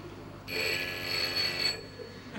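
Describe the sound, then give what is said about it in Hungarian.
A telephone fitted with a blinking-light alert device for deaf people rings once in a single steady electronic burst lasting about a second, bright and tonal over a soft background hum, then cuts off abruptly. “Így, amikor csöng a telefon, még egy süket ember is tudomást szerezhet róla.”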